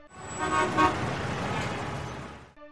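A car horn blares in one long, steady honk lasting a couple of seconds, loud, with a low rumble of road traffic underneath and no one talking.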